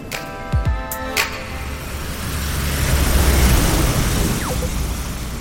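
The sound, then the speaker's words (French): Steady city traffic noise at Raffles Place in Singapore, surrounded by skyscrapers, with a low engine rumble that swells midway, a few sharp knocks and a faint high whine early on, and no voices. “Alors, on est sur euh, Raffles Place. On a l'impression d'être dans un espèce de Manhattan asiatique, avec toute cette forêt de gratte-ciel qui nous entoure.”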